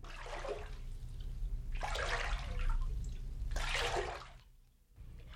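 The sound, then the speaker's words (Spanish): A large river rushes over large round stones in three swelling surges with a steady low rumble beneath, moderately loud, with no voices. “un gran río que corría por entre grandes piedras redondas.”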